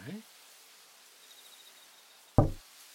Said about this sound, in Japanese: やっぱり、誰かノックしてる。えまさか。誰か、いるの